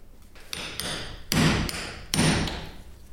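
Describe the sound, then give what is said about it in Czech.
A hammer strikes a hole punch set on a wooden block to punch holes in a leather belt: a couple of light taps, then two heavy, ringing blows about a second apart, with no one talking. “ty máš kladivo teď, že? Do tohohle bouchneš, jo?”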